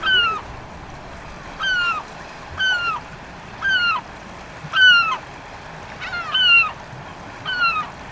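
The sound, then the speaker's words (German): Repeated loud, nasal calls of a lesser black-backed gull in Belfast, about eight descending wails spaced roughly a second apart, over a low outdoor background rumble with no talking. “ganz ungewöhnliche Vögel, nämlich eben diese hier, die Heringsmöwe.”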